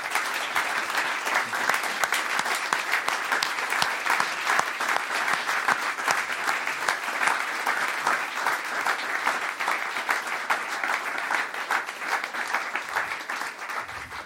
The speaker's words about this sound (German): Äh, jetzt gibt es einen großen Applaus für dich und vielleicht kannst du uns dann erzählen.